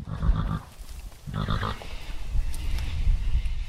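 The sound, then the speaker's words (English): A pony whinnies twice in quick succession in a paddock with long green grass on a sunny day, short harmonic calls separated by a brief pause, against a steady outdoor background hiss with no talking. “a pony called Poe who was going to take me on my very own ability journey”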